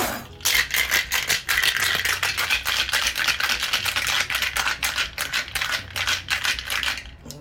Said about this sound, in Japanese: 氷をかぶせてですねえー、そしてシェイクしていくというような形になりますゴソゴソしておりますねいつものシェーカーとちょっと音が変わってきますけどね